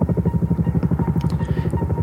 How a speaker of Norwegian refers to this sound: Den 27. august 1976 skjer noe nytt. Høyt over Jotunheimen svever et helikopter. Der inne sitter miljøvernminister Gro Harlem Brundtland sammen med rådgivere og kraftutbyggere.